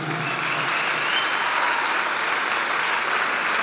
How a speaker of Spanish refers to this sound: A ese aplauso métele un poquito.